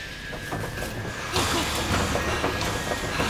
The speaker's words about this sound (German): Sie dort, dort Im Schatten, ich sehe sie. Bitte stellen Sie die Säge aus.